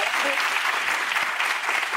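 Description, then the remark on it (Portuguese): A crowd applauds steadily for about two seconds, a dense, even patter of many hands clapping at once with a bright, hissy texture and no pauses. “não precisa bater palma, não, que não é minha, não, viu, gente?”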